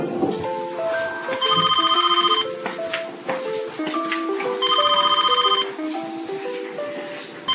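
A telephone rings with a bright, melodic electronic tone, repeating the same short stepped phrase twice at steady volume. No one speaks.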